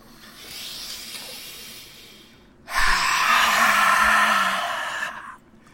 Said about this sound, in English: so let's get into round two big inhale on lion's breath exhaling all of the gas out of your lungs and then back into it